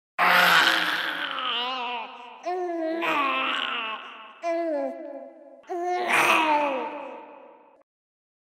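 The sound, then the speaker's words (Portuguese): A baby-like wailing cry rises and falls in several long, drawn-out bursts with brief gaps between them, loud, with no other sounds around it. “Sim, no meio da madrugada, um choro que parece ser de um bebê, choro contínuo e cheio de lamentos que parece vir de dentro de sua casa.”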